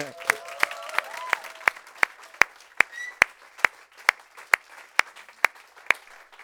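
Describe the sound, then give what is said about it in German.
A crowd applauds for Jesus, the clapping falling into a steady, rhythmic unison beat of sharp claps over a continuous wash of scattered hand-clapping, fairly loud throughout. “So, und jetzt geben wir noch einen richtigen Applaus”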